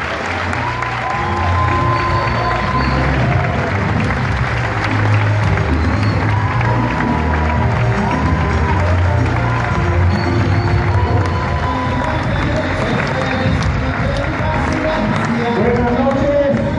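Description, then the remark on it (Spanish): Loud, sustained audience applause for a businessman being introduced fills the whole stretch, a dense wash of clapping with some cheering mixed in and a few voices calling out underneath. “Un fuertísimo aplauso para nuestro empresario”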